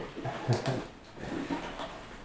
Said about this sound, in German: Ein kleiner Hund, ein Mops läuft an mir vorbei. Hallo, wer bist du denn?